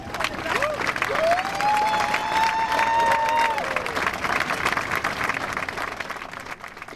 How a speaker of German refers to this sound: Aber dann kommen wir doch gleich mal zum Stargast Christian Lindner. Wie ist der denn aufgetreten? Also erstmal wurde er mit einem enormen Jubel empfangen.